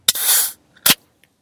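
A loud sneeze: a sharp burst trailing into a long breathy hiss, then a second short explosive burst a moment later. No one speaks.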